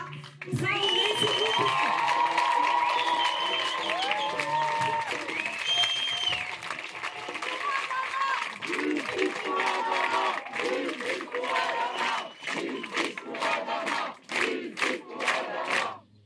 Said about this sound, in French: un tonnerre d'applaudissements pour Assa